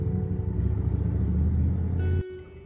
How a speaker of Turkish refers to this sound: Çok araba geçiyor arkadan.